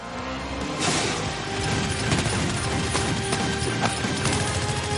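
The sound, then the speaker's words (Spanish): Sustained police gunfire crackles in dense, rapid bursts, with sharp repeated shots overlapping into a continuous loud barrage over a rumbling, noisy background. “La policía continúa disparando y alcanza a Moscú.”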